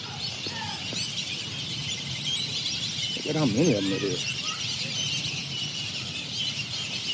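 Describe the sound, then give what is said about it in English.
A dense, continuous wash of high chirping and calling from a large flock of about a thousand birds gathering outdoors as the sun is going down fills the background, steady throughout, while a man speaks briefly in the middle. “look at these birds.”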